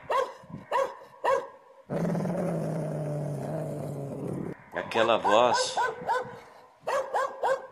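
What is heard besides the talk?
dog barking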